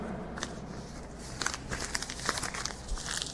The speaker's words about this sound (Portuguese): está comendo, parece. Mastigando no seu, tem um bolacha.